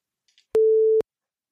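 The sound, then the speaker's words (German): A single steady electronic censorship bleep covering a spoken name: a pure mid-pitched tone lasting about half a second with abrupt start and stop, preceded by a couple of faint soft ticks. “Kannst du das piepsen, bitte? Ja. Piepsen kommt immer gut.”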